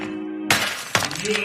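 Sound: door being kicked in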